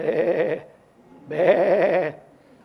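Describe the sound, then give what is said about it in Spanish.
Lambs bleat twice in close succession, each call a wavering, quavering cry lasting under a second, loud, with a brief pause between them and no talking. “Y entonces la gente está inspeccionando a sus corderos”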